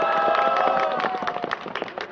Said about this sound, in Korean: 자, 동의하시면 박수.